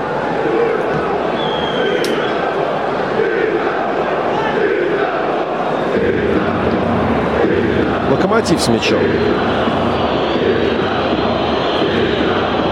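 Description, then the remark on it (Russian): A large stadium crowd at a Lokomotiv versus Dinamo football match roars steadily, with shrill whistling rising out of the din in disapproval of loud Dinamo chants, while a Russian-speaking commentator talks over the loud, continuous noise. “Ну, свистит э, трибуны, свистят, потому что не очень не нравится, что эти крики «Динамо» столько громкие.”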